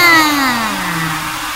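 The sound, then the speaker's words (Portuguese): A loud, steady electric fan whirs at full power, its motor tone gliding slowly downward in pitch beneath a broad airy rush, with no voices. “Ligando o ventilador na potência máxima!”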